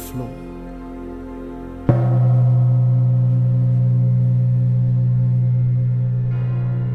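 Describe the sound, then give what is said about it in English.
A loud gong is struck once, its deep, low hum swelling and ringing on for several seconds with shimmering overtones, following a fainter sustained tone from before the hit. “the gong strikes. My time is up.”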